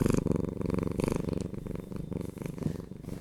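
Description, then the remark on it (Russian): A domestic cat named Ryzhik purring, a steady low rumbling rhythm with regular pulses rising and falling with each breath, continuous throughout with no talking. “это мой кот Рыжик.”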